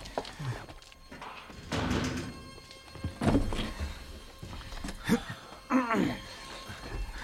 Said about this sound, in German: Und nun schließt die Tür.